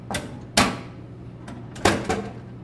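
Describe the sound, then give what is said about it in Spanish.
A metal push flap at the bottom of a vending machine selling cookies, chips and sweets is moved gently and swings back, giving a few sharp clanks and rattles, two louder knocks among softer taps, with no voices. “Y abajo hay una puerta metálica que dice push.”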